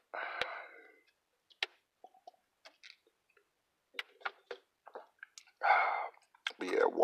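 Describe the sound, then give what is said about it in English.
Someone sips a strong liquor, with a breathy slurp, a string of small wet mouth clicks and swallows, then harsh exhaled gasps as the burn hits. “Um, yeah, uh, I'm about to take a sip.”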